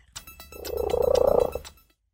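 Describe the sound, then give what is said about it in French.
A black and white domestic cat named Merlin purring very loudly, a rapid rumbling throb that swells for about a second and then fades, with no voices; from the official Guinness record video of the loudest domestic cat purr, 67.8 decibels. “Le ronronnement le plus fort d'un chat domestique”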